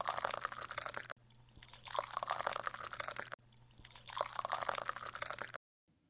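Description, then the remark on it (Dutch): A woman at a table pours hot water for tea into teacups in two or three steady, splashing pours with short pauses between them, with no talking. “De vrouw zet de kopjes op tafel en schenkt het hete water in de kopjes.”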